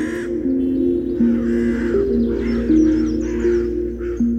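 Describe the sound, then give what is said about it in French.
A flock of crows caws harshly and repeatedly in a large meadow, their rasping calls overlapping in a steady stream, with a continuous low droning tone running underneath throughout. “Ils se dirigèrent vers une grande prairie où une vieille femme les accueillit avec une horde de corbeaux à ses côtés.”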